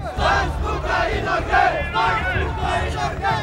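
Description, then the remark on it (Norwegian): About 3000 Muslim demonstrators march through the streets of Oslo, Norway, chanting 'Stans boka i Norge' in unison against a book, loud rhythmic shouted phrases repeating roughly every half second over a dense low rumble of many voices. “Det var 3000 muslimer som toga gjennom Oslos gater, og som ropte 'Stans boka i Norge, stans boka i Norge'”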